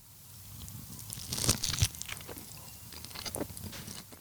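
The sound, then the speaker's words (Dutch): Someone chews a bite of pizza, with crisp crunchy bites and soft mouth noises over a low rumble, a couple of sharper crunches standing out partway through. “Laat ons dan nu een stukje pizza pakken.”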